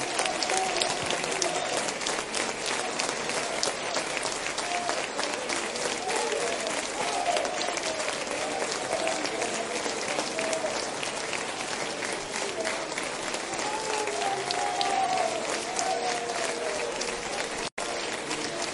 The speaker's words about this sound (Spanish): Dale un buen aplauso al Señor. ¿Cómo no hay uno? dos aplausos nomás? ¿Cómo no van a haber más para la gloria de Dios?